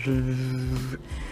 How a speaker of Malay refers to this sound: Aku rasa korang boleh dengar motor lalu kat depan ni